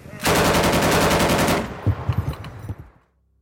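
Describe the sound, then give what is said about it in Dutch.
A loud, sustained burst of rapid gunfire from a German firing squad executing people at the edge of a pit rattles for over a second, then breaks into a handful of scattered, separate shots as they fire again at the fallen, fading out, with no one speaking. “Nadat de slachtoffers in de kuil gevallen waren, kwamen de Duitsers op de rand van het graf en schoten nogmaals op de gevallen mensen.”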